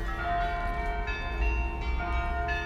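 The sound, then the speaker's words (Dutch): Church bells ring steadily at the market in Roeselare, with rich, sustained overlapping tones, their strikes blending into a continuous resonant peal set against a low outdoor rumble. “Herken je het geluid van deze klokken?”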